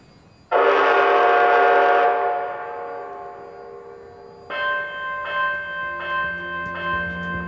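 A loud, sustained train horn blast with a rich chord-like tone, sounded as a warning to clear the way, fades away, followed by four evenly spaced, ringing bell-like dings of the station gong. No one speaks.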